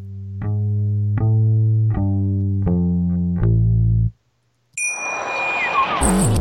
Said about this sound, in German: Ah, jetzt sind wir schon wieder so perfekt aufs Outro. Es ist jedes Mal wieder schön. Ja, das, das pusht nochmal so extra. Ich mach nochmal laut.